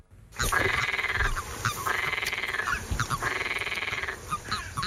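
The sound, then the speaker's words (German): Frogs croak in repeated pulsing bursts at the edge of a pond, where a bucket of about 20 frogs is being emptied, three long trilling choruses with short gaps between them, fairly loud with no talking. “Ein Kübel voller Frösche wird ausgeleert am Weiherand. Langsam gumpen die rund 20 Amphibien in eine sichere Zukunft.”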